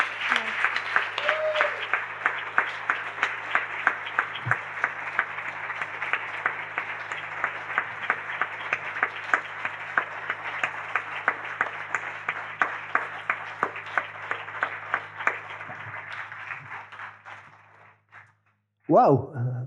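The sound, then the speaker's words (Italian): Sustained audience applause fills the room, dense and steady with many hands clapping for about seventeen seconds before fading out, followed by a brief burst of noise at the end. “sentilo questo applauso, portalo con te.”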